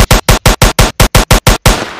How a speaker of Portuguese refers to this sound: Você quer mais metralhadora?